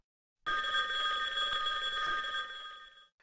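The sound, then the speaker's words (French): A classic telephone ringtone preview plays, a bell ringing continuously for about two and a half seconds, a bright metallic trill heard alone, then stops abruptly. “dérouler ensuite le menu Choisissez le son à jouer et sélectionnez l'un d'eux proposés dans la liste, comme classique dans notre exemple. Cliquez ensuite sur le bouton vert Écouter ce son pour voir, ou plutôt écouter, et vérifier s'il vous convient.”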